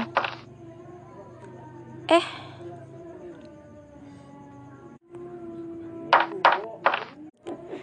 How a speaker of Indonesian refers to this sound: Siapa sih malam-malam gini ketok pintu?